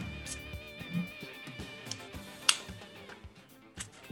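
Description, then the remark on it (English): A single sharp pop of a can of Game On IPA beer being cracked open in sunny weather, crisp, standing out briefly against a low, steady background murmur. “I hear the sound of a can opening is what they call an Irish cricket.”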